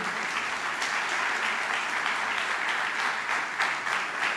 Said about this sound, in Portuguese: Dê uma salva de palmas bem forte a Ele.